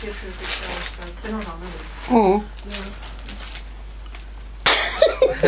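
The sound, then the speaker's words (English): A short cough rises out of a low murmur of voices, followed later by a burst of rustling and shuffling as someone rattles around, against a steady background hum. “Coughs and rustles.”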